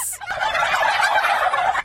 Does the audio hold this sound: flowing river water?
no